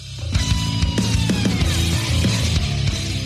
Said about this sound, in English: Did, did we miss the buzzer or did it just break up during the buzzer? I did the buzzer. Okay. It was just too loud. That's always your problem. You have the buzzer too loud.